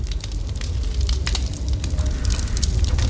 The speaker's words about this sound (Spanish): ¡Ya está muy fuerte la lumbre!